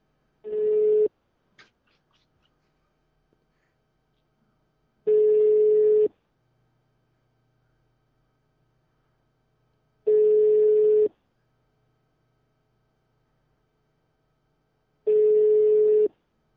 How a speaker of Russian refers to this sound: Впервые в истории просто отечественного Рунета мы и нашего подкаста мы звоним на реальный номер телефона. Пошла, пошла, пошла, родимая.